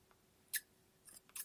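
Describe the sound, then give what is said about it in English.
Crisp scissors snips cutting paper, one sharp cut followed by a pair of quick snips near the end, with a quiet hush in between and no talking. “ASMR Scissors No Talking Snips and Cutting Paper”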